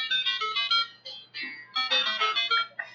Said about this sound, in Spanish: creo que estaría muy gracioso que cada uno de nosotros pusiera la alarma con la cual se despierta. Yo creo que puedo empezar. Aquí ya, ya preparamos cuáles van a ser las alarmas. Esta es la que escucho para despertarme cada día.